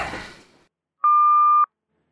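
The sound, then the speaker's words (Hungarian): A fading burst of noise dies away, then a single steady electronic telephone ringing tone sounds clearly for about half a second, followed by silence. “Szia, nagyon jó, hogy felvetted a telefont, közi szépen.”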